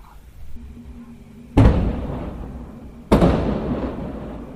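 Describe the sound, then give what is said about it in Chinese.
Two loud, sharp bursts of firecrackers about a second and a half apart, each a sudden crack followed by a rumbling, crackling tail that slowly fades, over a low background hum. “这边开始放炮了，放炮了，你们听到没有？”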